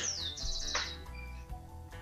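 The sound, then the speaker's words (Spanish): Small birds chirp in the background, a high descending whistle followed by a quick run of bright tweets, fairly faint over a low steady ambient hum. “mientras tenemos unos pajaritos hermosos de fondo.”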